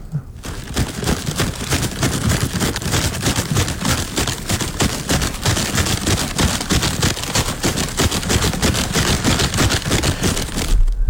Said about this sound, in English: It is a bag of Ritz crackers that last oh, one. a bag of Ritz. Okay.